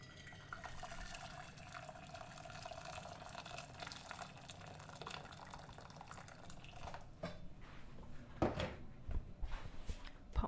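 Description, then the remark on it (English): Water runs steadily into a pan for several seconds, a continuous splashing, filling sound, ending with a few clanks and sloshes as the flow stops; the pan is being filled with water to boil a whole lemon. “So I'm just going to put some water into a pan.”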